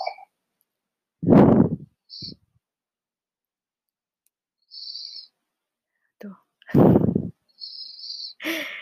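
Slow, heavy breathing of someone asleep: two deep, airy breaths several seconds apart, with faint high whistling tones in the quiet gaps between them.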